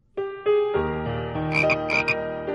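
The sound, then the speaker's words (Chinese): Frogs croak in a pond in spring in a steady, buzzy chorus, starting with a few quick separate croaks that run together into a continuous drone, with brighter, higher chirping calls bursting in over it near the end. “春天来了，池塘里的冰融化了，青蛙妈妈睡了一个冬天，也慢慢的醒了过来。”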